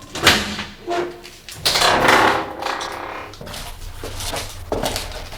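An unlocked door opens with a few knocks and scrapes, then a longer sliding, creaking movement and softer shuffling noises as someone who was invited in comes in. No one speaks.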